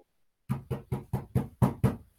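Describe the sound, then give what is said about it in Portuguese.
Seven firm knocks on a stuck bathroom door with someone trapped inside, in a quick, steady rhythm, each a heavy thud that fades fast, with no voices and silence just before they begin. “Ele ficou preso, preso no banheiro.”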